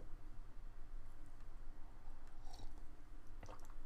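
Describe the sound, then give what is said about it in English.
Someone quietly sips coffee in the morning, with soft wet slurping and mouth noises, a couple of brief sharper sips near the end, and no talking. “Let me take some coffee.”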